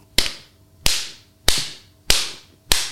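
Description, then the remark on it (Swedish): Five sharp, snappy strikes of a riding crop made mainly for its sound effect land in a steady rhythm, each a crisp, loud smack with a short ringing tail, with no talking. “Här har jag en annan variant på det och den är gjord mest för ljudeffektens skull.”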